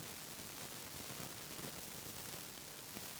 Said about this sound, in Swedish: Vet vi vad det kan vara som brusar? är det högtalarna. Jättemärkligt. Eller om jag har tryckt någon knapp.